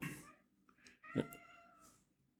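A cat meows in a drawn-out, complaining yowl, a couple of short calls followed by a longer wavering cry. No one speaks over it.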